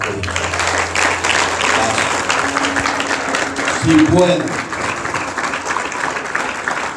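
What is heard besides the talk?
audience applause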